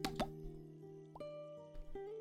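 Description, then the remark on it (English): A few small teardrops plop one at a time onto the surface of a still pond, irregularly spaced and fairly soft, over a faint steady hum in the background. “I, and you can see a few teardrops that hit uh, the surface of the pond as it.”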